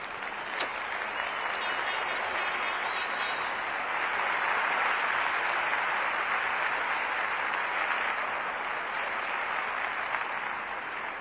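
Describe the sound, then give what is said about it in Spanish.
An audience claps steadily for about eleven seconds, a dense, even wash of many hands at a consistent loudness with no voices heard over it. “Yo pues sin más quiero pediros un fuerte aplauso para no sé qué porcentaje ponerle, mi todo en el negocio.”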